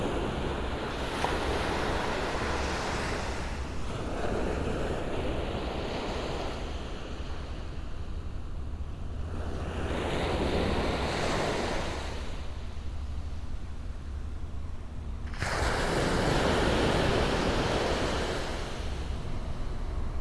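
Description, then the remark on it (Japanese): Ocean waves break and wash ashore on the Shonan coast in steady surges, a broad rushing roar swelling and fading about every few seconds, with some wind noise and no voices. “しばし波の音をお楽しみください。”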